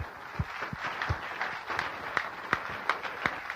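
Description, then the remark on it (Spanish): An audience applauds for the Lord with a steady wash of many hands clapping, with sharper individual claps popping out irregularly over the crowd's continuous patter. The applause stays at an even, moderate level throughout. “El Señor se merece nuestros aplausos, definitivamente.”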